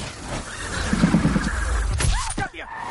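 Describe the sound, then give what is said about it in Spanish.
A bullet fired from a rooftop strikes a car windshield with a single sharp crack near the end, rising out of a dense, noisy background with muffled voices underneath. “La bala impacta en el parabrisas.”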